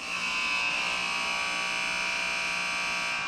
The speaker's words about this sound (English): All right, that is the final buzzer